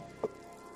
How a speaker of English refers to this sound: It, it just will not quit raining here. Like, dang.